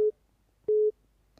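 A telephone ringing tone sounds over the line: a steady, low electronic beep cut off at the start, a pause, then a longer identical beep. No voices are heard.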